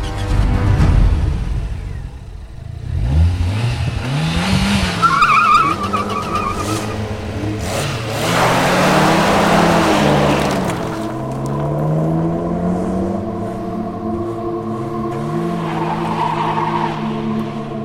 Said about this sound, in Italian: Provenzano, coperto di sangue, trasporta il corpo di Calogero Bagarella verso l'Alfa Giulia che è fuori col motore acceso. Lo caricano nel portabagagli e partono.